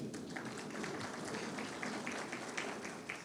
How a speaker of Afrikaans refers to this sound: Kom ons gee vir ons musikante lekker hande klap.